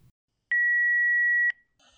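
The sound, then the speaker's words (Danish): A single steady electronic beep of a telephone answering machine before a message, lasting about a second, clear and loud, followed by faint background noise. “Jeg synes til gengæld lige, at vi skulle se, om der var mere på vores telefonsvar.”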